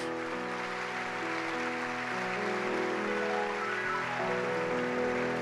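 audience applauding

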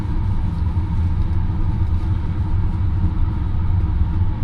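rapid train running

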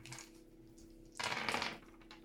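dice being rolled

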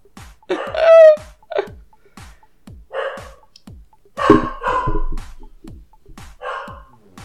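dog making noise

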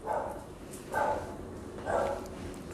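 dogs barking

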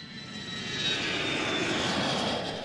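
airplane engine flying overhead

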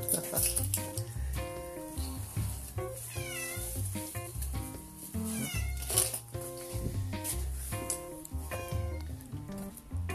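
cat meowing

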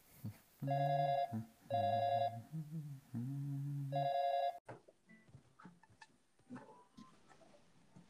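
phone call ringing

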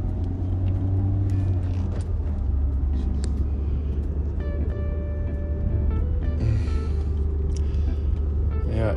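lawnmower engine running

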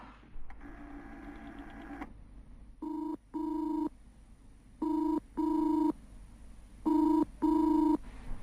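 telephone ringing unanswered

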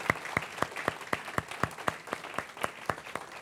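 audience applause

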